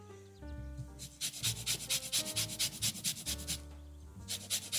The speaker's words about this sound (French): Je prépare mon zesteur. Je prépare un petit cul de poule. Et je vais déjà zester mon citron dans mon cul de poule.